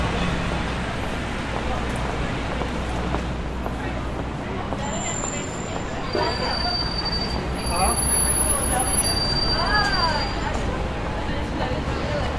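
A subway train rumbles through the World Trade Center metro station in New York, its steady roar punctuated by high, thin wheel squeals that come and go, with faint crowd murmur beneath the noise.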